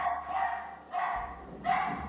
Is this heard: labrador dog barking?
yes